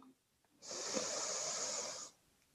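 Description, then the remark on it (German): A single deep, steady inhale through the nose during a breathing exercise, the third of several deep breaths, a soft airy hiss lasting about a second and a half, clear with nothing else around it. “Wir atmen ein drittes Mal tief durch die Nase ein”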